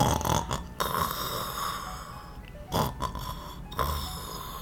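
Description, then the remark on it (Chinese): A voice imitates a soldier snoring as if sound asleep: three rough, rasping snorts spaced about a second apart, each swelling briefly over a steady low hiss. ““哎呀”是打鼾的声音呢。”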